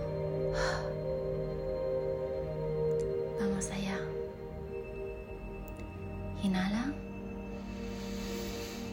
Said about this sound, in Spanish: Vamos a realizar varias respiraciones profundas para ayudar a calmar tu sistema nervioso. Es importante que inhales por la nariz, llevando todo el aire al abdomen, como si quisieras llenar un globo, y que exhales por la boca con el sonido.